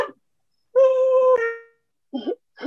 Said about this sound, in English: Sorry, sorry, my dog's going off.